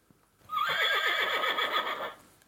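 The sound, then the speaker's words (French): A horse neighs loudly, a single long whinny lasting about a second and a half with a wavering, trembling pitch, then fading out. “Le mouton réveille le cheval qui hennit.”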